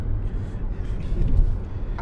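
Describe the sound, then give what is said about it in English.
Steady low rumble of a moving car heard from inside, with continuous road and engine noise filling the low end at a fairly even, moderate level and no voices. “We're in the same car.”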